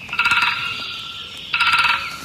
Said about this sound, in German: Hier, im Internet kann man sich anhören, wie ein Buntspecht klingt. Hört mal. So ruft er und so klopft er auf der Baumrinde.